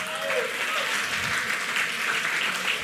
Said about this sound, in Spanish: Oye, eh, un aplauso para la juventud.